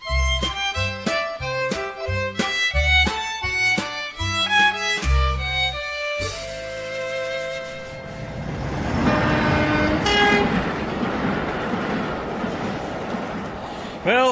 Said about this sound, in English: here we are at the railway station.